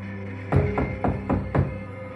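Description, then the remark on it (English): Five quick, evenly spaced knocks on a back door, solid, with a dull thudding body. They come in one steady burst over a quiet background with no voices. “I went to look out, but as soon as I was at the window, I heard a knock come from the back door.”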